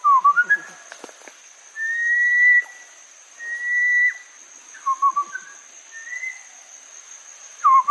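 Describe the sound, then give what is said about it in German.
A man in the jungle whistles a series of calls to communicate with a monkey: short chirping notes, then two long, sustained tones and a few quick rising and falling whistles, all over a constant high-pitched background drone. “Mit Hilfe von Pfeiflauten kommunizierte er mit einem Affen.”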